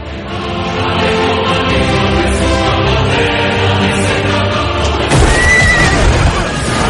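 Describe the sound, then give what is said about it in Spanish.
Several cavalry horses whinny and neigh loudly and continuously over a rumbling clatter of galloping hooves as the cavalry charges and crashes into a vanguard of lowered pikes, swelling into a dense, noisy rush near the end. “Las picas descendieron y la caballería se estrelló sobre nuestra vanguardia.”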